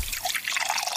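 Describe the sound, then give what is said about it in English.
A drink pours steadily into a glass, a continuous gurgling splash with bubbly, rising tones as the liquid fills, moderately loud and heard on its own without any talking. “I think it's time for a nice drink, though.”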